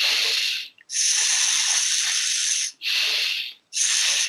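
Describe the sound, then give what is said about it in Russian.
A voice makes a series of long, steady hissing "sss" sounds as a breathing exercise, drawing the belly in like a corset on the "S" sound, four exhalations with brief pauses for breath between them, bright and fairly loud, with no talking. “И потом уже собираем как на звуке «С» собираем живот снова вот в конструкцию корсета, так скажем.”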